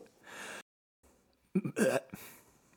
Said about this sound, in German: Oh, haben wir, jetzt haben wir alle drei schon mal gerülpst. Das ist sehr schön.